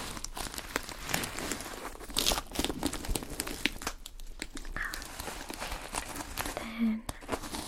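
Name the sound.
crinkling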